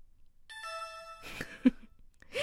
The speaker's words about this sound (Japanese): ピンポーン何がピンポンなんでしょうね。